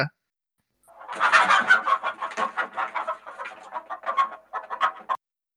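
A hen clucks steadily, a run of short, choppy clucks with brief pauses, rising at first and then continuing in uneven bursts, with no talking over it.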